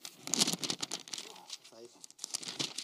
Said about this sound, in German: Ich blätter mich hier heute mal so richtig analog durch. Ne? Richtig schön. So ein Seiten, hört ihr das?